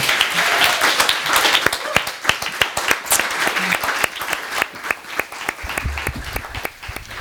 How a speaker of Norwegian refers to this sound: Vi gir dem en applaus først.